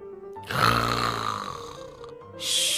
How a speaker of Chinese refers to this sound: 科科说完。就回了客房，不一会儿，里面又传出了打呼声。